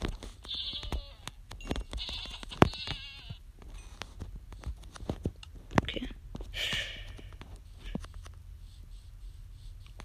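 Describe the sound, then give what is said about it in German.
Several goat bleats in a video game sound in short bursts, fairly quiet, scattered over a faint background with occasional clicks and soft thuds. “Und ohne Ziegen sind da. Ich hasse Ziegen.”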